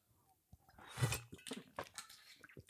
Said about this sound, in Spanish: Paro dramático para beber agua con gas.